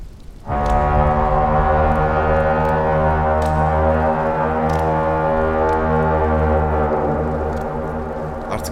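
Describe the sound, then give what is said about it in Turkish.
An army war horn sounds in the distance after sunset: one long, deep blast, held steady for several seconds with a rich, brassy drone that slowly fades near the end. No voices accompany it. “Uzakta Norv ordusunun borusu duyuldu.”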